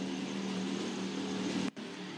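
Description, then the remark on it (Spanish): A loud, raspy motorcycle engine roars past without an exhaust pipe in a shopping area, a steady droning growl that cuts out for an instant before rumbling on. No one speaks. “Ignoren la motocicleta asquerosa que acaba de pasar, que parece que no tenía tubo de escape.”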